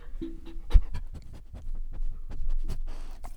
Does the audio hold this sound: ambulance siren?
no